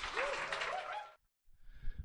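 A burst of audience applause welcoming the first guest of the show, dense and steady clapping for about a second before cutting off, followed after a short pause by a fainter murmur of noise.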